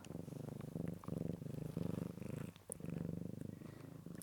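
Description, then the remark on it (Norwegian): A cat purring steadily, a low rumbling buzz that swells and fades with each breath in a regular rhythm, with a brief pause partway through. “Dette er lyden av min tredje, da.”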